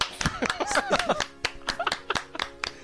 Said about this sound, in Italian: L'hai detto, Applauso.